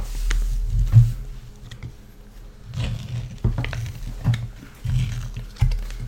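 A foil lid being peeled back off a hot Auntie's sticky toffee steamed pudding, with scattered crinkly crackles and soft handling noises over a low rumbling background and no talking.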